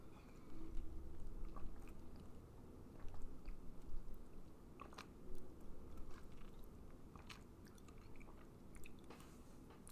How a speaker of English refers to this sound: There is definitely chunks of I want to say like mint chocolate chip, like crushed up mint chocolate chip. Take another sip real quick.